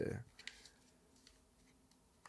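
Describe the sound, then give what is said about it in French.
A short burst of crinkly rustling and scattered light clicks as a just-bought pouch of paper lined with aluminium is handled and torn, with a low thump at the start and quiet handling noise after. “Je viens de l'acheter, puis j'ai déjà déchiré.”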